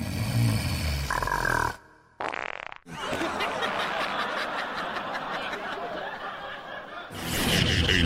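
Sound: voice imitating snoring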